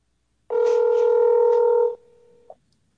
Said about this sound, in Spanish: Estamos timbrando al ministro, ¿ah? Ojo a esto, ¿ah? Esto no lo ven en otro lado.